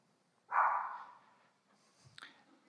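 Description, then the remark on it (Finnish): A dog, Pepi, lets out a single loud bark that trails off over about a second, followed by quiet and a faint click, with no one speaking. “Siellä Pepi, ha- Pepi haukkuu tuota, hän, en tiedä tunnistaako minun ääneni, mutta, tuota, mutta hän on ainut koira Suomessa, joka on minun kanssa ollut kaksissa hautajaisissa, niin tuota, hän, hän tuolla kommentoi.”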